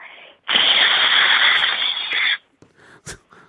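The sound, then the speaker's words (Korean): A person imitates an electric rice cooker releasing steam as an entry in a radio voice-impression contest: a loud, steady hiss lasting about two seconds with a thin high whistle on top, followed by a few short breathy puffs. “자, 마지막으로 전기밥솥 다시 한번 해볼게요. 전기밥솥이요? 네. 증기 배출이 시작됩니다.”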